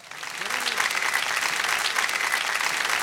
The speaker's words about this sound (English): Who's been married here? Round of applause if you are married.